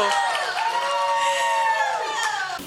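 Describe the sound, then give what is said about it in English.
A crowd cheers loudly and steadily, many voices whooping and calling out together over a wash of applause, the din holding for a few seconds before easing slightly at the end. “Yeah, give him a hand.”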